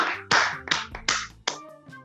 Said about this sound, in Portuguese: Tá, tá, olha, uma salva de palmas aqui,